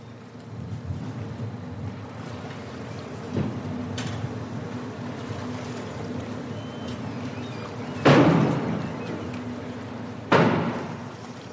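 A ferry pulling into Helsinki harbour, Finland, rumbles steadily with a deep engine drone, and two sharp, loud thuds ring out near the end, as if the hull bumps against the dock. No one speaks.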